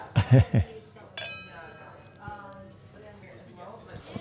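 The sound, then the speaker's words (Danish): Wine glasses touch in a single bright clink in a toast that rings on briefly, preceded by a few soft knocks and followed by quiet voices talking. “Jamen, en skål på det. Skål.”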